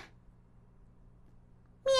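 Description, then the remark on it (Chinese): Near-silence with only a low hum, then a single loud, bright meow from a big grey cat suddenly starts at the very end and is cut off mid-cry. “喵，你吵嘴的时候很聪明啊， 大灰猫说。”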